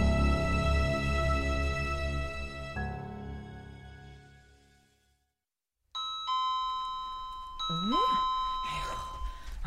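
A doorbell chimes in the morning at Nam Hyun-woo's mansion as a postman delivers registered mail, a loud two-note ding-dong that rings out and fades to silence, then a second electronic ring starts, with a brief voice-like sound over it.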